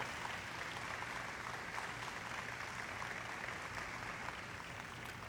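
A crowd applauds for the Lord, countless hands clapping steadily into a dense, even wash of sound that holds at a constant level for the full five seconds, with no voices standing out.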